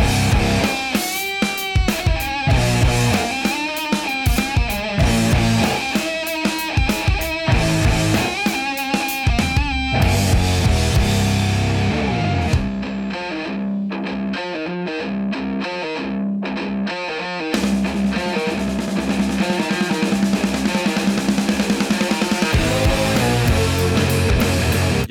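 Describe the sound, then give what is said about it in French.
A heavily distorted bass guitar played through several amplifiers and many effect pedals, shifting between deep, thick low riffs and brighter, lead-guitar-like lines, with a short quieter break midway and no voices. “qui va tantôt sonner comme une grosse basse bien profonde, de, tantôt sonner carrément comme, comme une guitare solo.”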